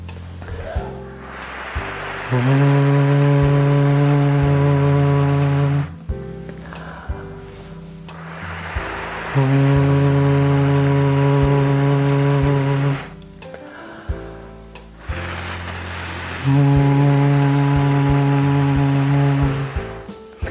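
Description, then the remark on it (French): A voice imitates wind with a breathy whoosh, then adds a steady, low owl-like hoot, as a vocal exercise repeated three times in an even rhythm with short pauses and no speech. “Notez que je démarre toujours par le bruit du vent et je rajoute le hibou après.”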